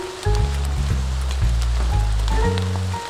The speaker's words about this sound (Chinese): 忽然，风呼呼地吹来，要下雨了。